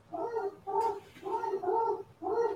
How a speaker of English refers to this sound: it's dog's going crazy outside.